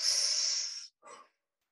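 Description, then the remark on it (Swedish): A person doing a morning breathing exercise outdoors draws a deep, forceful breath in with a loud airy rush, followed after a brief pause by a shorter, softer exhale, alone with no talking. “Och då ska man liksom andas väldigt eh, djupt och nästan så att ta i så här.”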